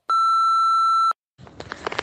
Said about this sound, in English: Give us a beep, please, producer Deb.